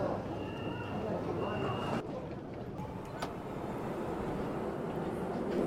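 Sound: metro train arriving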